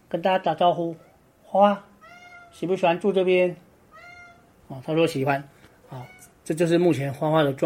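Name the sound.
cat meowing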